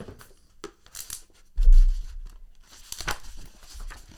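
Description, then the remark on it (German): Paper rustling and crinkling as a brochure is handled while waiting in the queue for a roller coaster, with a few sharp tearing-like crackles and a brief low thump partway through, all fairly soft with no speech. “Wo habe ich den scheiß Prospekt?”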